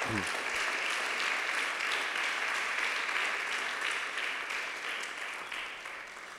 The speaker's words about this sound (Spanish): Dele un aplauso al Señor, por favor, hermano.